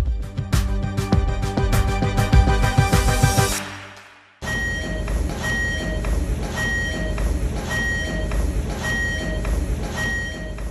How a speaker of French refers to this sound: Qu'est-ce qu'on entend là C'est l'alarme de l'école 60 de Solomensky.